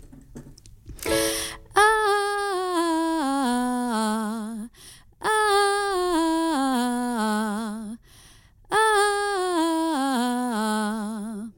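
A solo voice sings a single vowel in three descending melismatic runs, each note stepping down in a lilting, slightly lengthened, swaying eighth-note rhythm with added accents, clear, with short pauses between phrases.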